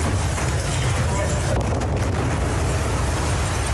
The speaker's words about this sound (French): C'est alors qu'un second blast très puissant a lieu.